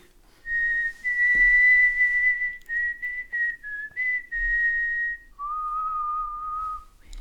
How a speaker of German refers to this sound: So, jetzt habt ihr mich pfeifen auch mal gehört, damit ihr wisst, welches Thema ich meine.